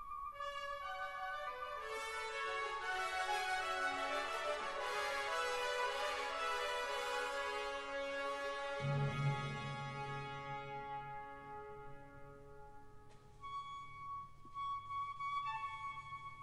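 Orchestral music in a symphony evoking military band music from afar: sustained brass-like chords swell steadily, then a deep low note enters midway as the upper harmonies thin out and fade. No voices.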